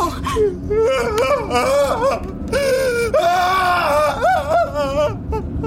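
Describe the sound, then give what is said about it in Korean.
A person driving a car wails loudly and with anguish for several seconds, the voice wavering between a strained scream and sobbing cries, with pitch rising and falling in ragged, breathy swells, unbroken. “당신은 고함인지 울음인지 알 수 없는 소리를 질러댔다.”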